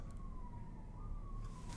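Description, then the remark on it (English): A siren wails steadily over low, rumbling city traffic noise in downtown Toronto, its single tone sliding slightly downward, fairly quiet. “For one, the siren noises oh, that man. you can hear.”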